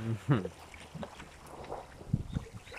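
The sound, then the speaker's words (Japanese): Ocean waves wash steadily onto a beach on Amami Ōshima, Japan, in a bay surrounded by land, a soft continuous surf with some wind noise in the background, while people talk briefly over it. “ここで撮ったら2人が話しきても波の音をお楽しみいただけるということで。”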